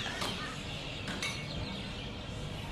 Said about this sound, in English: I don't know if you can hear the background noise that I have. All these birds are sitting waiting for the sunset to happen. Can you hear it?